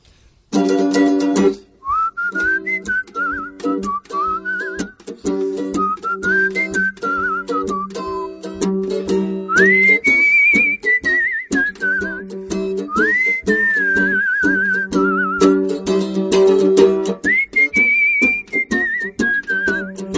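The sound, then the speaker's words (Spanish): A person whistles a lilting melody in long, gliding phrases over a steady, rhythmic mandolin accompaniment, both clear, with no talking. “que lo voy a interpretar con mandolata y silbido”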